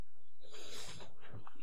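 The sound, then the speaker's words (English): A dog gives a short, breathy snort, a gusty burst of air, then quieter snuffling breaths trail off. No one speaks. “That was my dog.”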